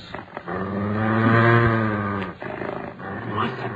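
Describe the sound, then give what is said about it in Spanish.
A huge dog called Cuchillo growls low and deep in one sustained rumble that swells and fades, followed by a few shorter, rougher snarls, as it bares its fangs. “El enorme perro, al que llamaban cuchillo, y que había entrado en la habitación en vista de los gritos durante la discusión, se quedó ahí.”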